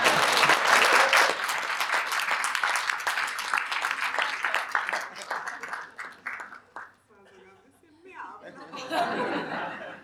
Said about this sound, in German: Ich hätte auch gerne einen Applaus dafür.